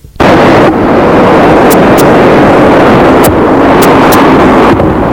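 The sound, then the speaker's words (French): A loud, continuous roar of rough, swelling sea and gusting wind as the weather changes, with heavy crashing wash and occasional sharp bursts of spray, relentless, with no voices. “Le temps change. La mer devient houleuse.”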